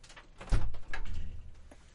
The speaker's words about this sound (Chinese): 我要帮猫开门。